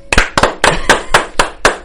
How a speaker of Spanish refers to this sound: La primera noticia que hoy quería dar, hablando de, de básquetbol, para esta ciudad, vuelve para su temporada 17 UD, Udonis Haslem, regresa con el Miami Heat. Qué buena noticia. Yo quiero dar aplausos para eso.